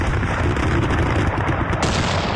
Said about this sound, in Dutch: Dat zijn dan kanonnen die worden afgevuurd, ja, stel voor? Er waren 100, 140 enorme kanonnen die de halve stad in, eh, in, puin schoten.